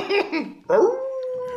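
A dog gives a couple of short, yelping barks, then breaks into a long, steady howl that rises and holds its pitch to the end. It's fairly loud, with no talking.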